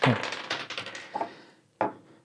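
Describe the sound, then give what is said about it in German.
Dice are rolled again in the next round of a game, clattering across a hard surface in a quick burst of small clicking knocks, then a few scattered taps and a final sharper clack as they settle, fairly quiet. “wir würfeln wieder.”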